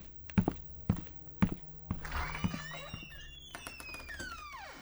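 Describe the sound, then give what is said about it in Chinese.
Five heavy, thudding footsteps approach from far to near at a steady walking pace, then give way to softer scuffing while high, gliding squeaky tones rise and fall over the last few seconds. “李进贤听到了由远及近的脚步声。”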